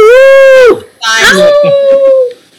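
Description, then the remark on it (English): A voice imitates a wolf howl: two loud, sustained howls, the first held steady, the second rising, swooping and stretching out longer before fading. “She wolf howls, booyah boy screams.”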